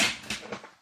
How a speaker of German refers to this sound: Dann, das war der Stuhl. Nicht mein Rücken, das war nur der Bürostuhl.